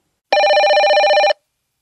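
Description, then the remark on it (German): A telephone bell rings in one sustained, rapidly trembling burst of about a second, loud, with a bright metallic tone and no voices around it. “Bevor Jan noch etwas dazu sagen konnte, klingelte das Telefon.”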